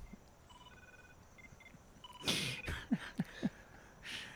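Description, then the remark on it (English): A faint, melodic ringtone from a cell phone that was not silenced before a recorded interview plays a few short electronic tones, followed by rustling and a few soft thumps, as if the phone is being handled. No one speaks. “it's your cell phone that I forgot to ask you to silence before we started.”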